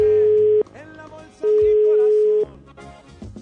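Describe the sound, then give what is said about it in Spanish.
A telephone call is dialed and rings on the line: two long, steady ringback tones with a short pause between them, heard loud over busy background music and voices. “Ahí voy a marcar”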